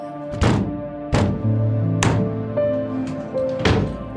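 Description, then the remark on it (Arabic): Four heavy, dull thuds land at uneven intervals as someone accidentally bumps hard into a table after getting up to fetch something, loud, with a steady tonal hum sustained underneath and no talking. “ما في شي قمت لجيب غرض وبالغلط ضربت الطاولة”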